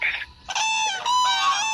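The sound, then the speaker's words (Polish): Common cranes calling: a short trumpeting call, a brief pause, then a loud, continuous stretch of overlapping rolling, bugling cries with a rich, brassy tone. No one speaks. “Żurawie to już z półtora tygodnia lecą i to takimi kluczami no, dość dużymi.”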